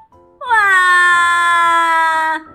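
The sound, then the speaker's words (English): A child's loud, drawn-out crying wail: one sustained, steady-pitched cry that dips slightly at the start and holds for about two seconds. No sniffles or talking. “Then suddenly, Betty cried”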